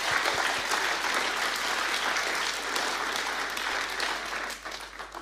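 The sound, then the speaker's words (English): Sustained applause from a church audience after a gospel message, a dense wash of many hands clapping steadily for several seconds at a fairly even level, tapering off slightly at the end. No one speaks over it. “I think let's give them a massive round of applause.”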